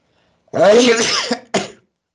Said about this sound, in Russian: Будьте здоровы. Спасибо.